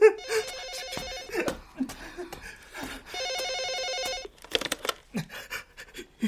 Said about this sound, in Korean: 단체 예약한 손님 전화 아닐까요? 받아야 할 것 같은데.